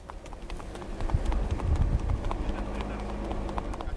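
Steady hoofbeats of a trotting horse clip-clop along a road, close by and continuous, with a low rumble of vehicle noise underneath.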